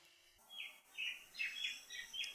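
Birds chirp in a quick series of bright, high calls, about five short bursts with brief gaps between them, fairly quiet, with no one talking.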